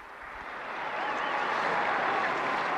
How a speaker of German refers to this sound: Einen Applaus für die Kinder.